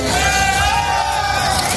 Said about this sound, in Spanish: Así suena el momento en el que uno de los tractores que participan en la protesta vuelca un camión con frutas y hortalizas españolas.